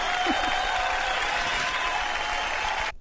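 A steady burst of applause from a crowd congratulating someone on a new position, dense and even for about three seconds before cutting off abruptly, with a faint voice briefly audible near the start.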